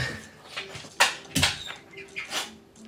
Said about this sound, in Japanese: 犬が暴れてますね